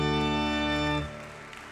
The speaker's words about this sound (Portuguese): E se eu fosse você, meu amado, eu dava um glória a Deus e aplaudia o Senhor.